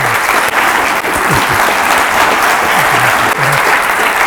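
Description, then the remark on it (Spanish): Loud, sustained applause from a large audience for Padre Ángel, a dense steady wash of clapping with no pauses, with faint scattered voices and low murmurs mixed underneath. “no voy a pedirles a todos ustedes un beso para el Padre Ángel, porque sería, sería laborioso, nos tendríamos que estar aquí, tenemos que estar aquí mucho, mucho tiempo pues sí les pido un aplauso fuerte para un hombre bueno.”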